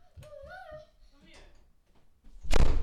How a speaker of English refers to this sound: Bob, close my door.